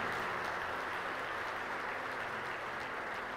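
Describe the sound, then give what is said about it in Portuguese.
A church audience applauds the Lord, a dense, steady wash of many hands clapping together that holds at an even, fairly loud level for several seconds without voices. “A igreja pode aplaudir o Senhor nesse momento?”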